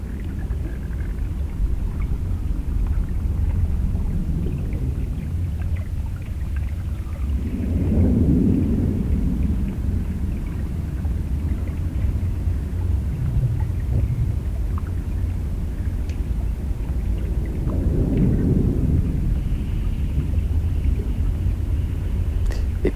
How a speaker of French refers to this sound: les hydrophones je les ai plongés dans le canal pour voir un peu qu'est-ce que ça pourrait donner. Et c'était assez beau parce que euh, on entend toute la ville, mais à travers le filtre de l'eau, donc euh, tout paraît très lointain et étouffé.